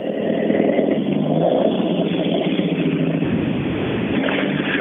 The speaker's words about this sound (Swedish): Men här behöver man inte fundera allt för länge. Liveryn på bilen är också väldigt tydlig, så att det, är inget, det är inget tvivel om vilken bil det är som kommer.